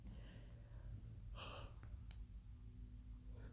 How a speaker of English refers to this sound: excuse me i'm yawning